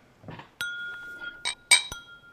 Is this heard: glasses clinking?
yes